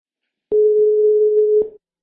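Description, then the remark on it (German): A steady telephone dial tone hums at one constant pitch for about a second, starting and stopping abruptly with faint clicks, with no voices alongside it. “das Corona-bedingt leider telefonisch stattfinden musste. Also bitte nicht auflegen.”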